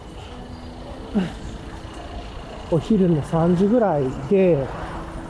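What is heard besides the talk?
passing car traffic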